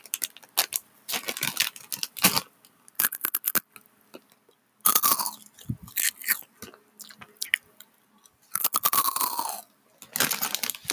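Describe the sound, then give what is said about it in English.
Crisp crunching of Hot Cheetos spicy cheese puffs eaten for ASMR, with repeated bites and steady chewing in irregular bursts, some pauses between, and no talking. “So, anywho, I'm just gonna pop out some hot Cheetos and start munching down.”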